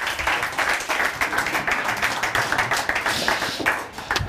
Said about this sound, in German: Das ist Coburgs Oberbürgermeister Dominik Sauerteig. Der darf mit zu uns in die Mitte kommen. Natürlich. Mikrofon nehmen wir auch mit dazu. Gibt es einen kleinen Applaus.